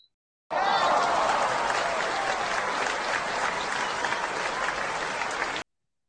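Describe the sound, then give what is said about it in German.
A burst of steady, dense, loud clapping from a crowd, holding at an even level for about five seconds before cutting off abruptly. “Okay, das ist jetzt fast schon ein Applaus wert.”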